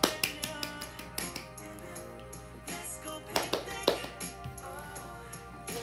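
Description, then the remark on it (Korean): A series of sharp, irregular hand claps, some louder than others, rings out over a steady, tonal musical background, with no one speaking. “다 같이 박수.”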